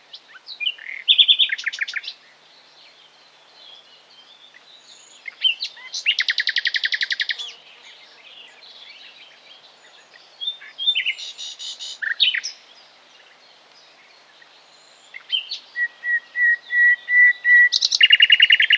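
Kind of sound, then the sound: bird, common nightingale song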